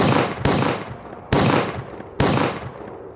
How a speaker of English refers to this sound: It was at this time when the second round of gunfire with more serious intentions erupted as the hired protectors yelled out firing warning shots over the crowd.